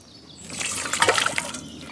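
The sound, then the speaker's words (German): Water pours steadily into a cooking pot for cooking rice for three people, a splashing rush that swells in the middle with bright sloshing bursts, then keeps running. No voices. “Das heißt, ich würde zwei Tassen, drei Tassen Wasser, anderthalb Tassen Reis machen, wenn wir drei Leute sind.”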